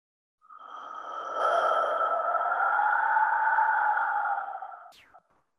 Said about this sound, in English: I have an artisan in Mexico, um, outside of Mexico City, making these flutes, these wind whistles for me